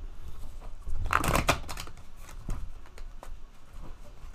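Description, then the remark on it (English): A quick riffle of shuffling cards, a dense burst of crisp papery flutter around the middle, followed by a few softer taps and rustles, moderately quiet. “Let me do another shuffle, just to get a good shuffle.”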